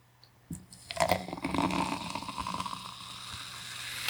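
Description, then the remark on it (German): Mate soda is poured from a bottle into a glass, a steady gurgling stream starting after a brief clink and carrying on for several seconds, with no talking. “So, ich gieße mir jetzt noch eine Mate ein, ne?”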